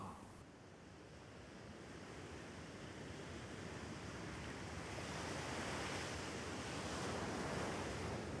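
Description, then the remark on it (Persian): Steady roar of sea surf washing onto the shore, a continuous broad hiss that swells gradually louder toward the end, with some wind rumble and no voices. “دریا هر چیزی که بهش بسپاری رو به خودت برمیگردونه به جز صدا صدات رو که بهش بدی با خودش میبره یه جای دور یه جای خیلی خیلی دور”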